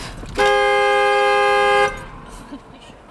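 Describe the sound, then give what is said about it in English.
A single sustained car horn blares loudly for about a second and a half, steady, after the car is turned all the way off, then cuts off, leaving quiet background noise. “So if you turn your car all the way off, it just starts honking?”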